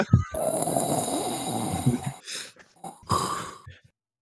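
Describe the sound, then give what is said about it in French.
A voice imitates heavy, rasping respirator breathing: one long, loud, gritty draw of breath followed by two shorter wheezing pulses, with no talking. “Vous pouvez entendre un souffle”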